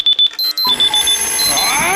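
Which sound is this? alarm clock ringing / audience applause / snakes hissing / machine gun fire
alarm clock ringing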